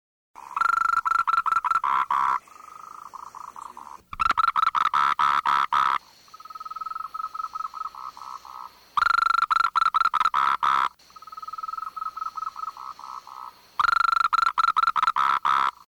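A Moltrecht's green treefrog calling alone, loud rapid bursts of clicking pulses alternating with steadier, buzzy trilled stretches, the pattern repeating several times over about sixteen seconds.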